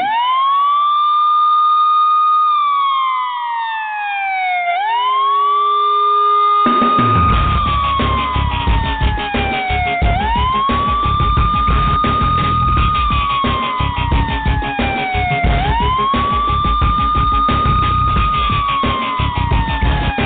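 A loud emergency vehicle siren wails, rising and falling in slow repeating cycles; after a few seconds a heavy engine rumble joins underneath and continues to the end.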